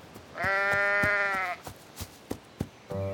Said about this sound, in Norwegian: Billis og Bollos løp gjennom det høye gresset mot sauelyden. Og der så de den. En stor hvit og svart sau med digre horn som satt bom fast med hodet sitt i et gjerde.